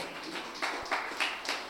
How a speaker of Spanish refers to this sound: Dele un aplauso al Señor, hermano, pueden sentarse.